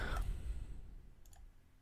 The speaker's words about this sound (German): Äh, würfel mal Action und Stunt.